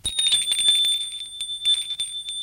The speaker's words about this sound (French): Il est 21h, Philippe sonne à la porte.